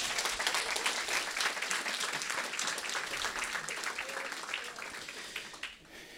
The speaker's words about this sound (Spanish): Denle un aplauso, un aplauso.